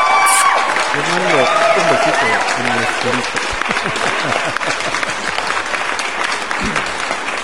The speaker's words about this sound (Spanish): Aplausos para toda esa gente hermosa preciosa.